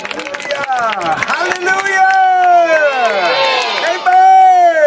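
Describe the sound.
An audience claps for Jesus as a preacher comes to the microphone, in a quick burst of sharp, overlapping claps, then many voices rise in loud, sustained cheering and shouting that carries on to the end.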